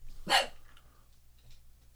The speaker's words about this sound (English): we're going to listen to his vicious dog. That obviously would kill anyone who came too close